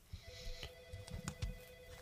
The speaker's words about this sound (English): Hey, I hear a phone.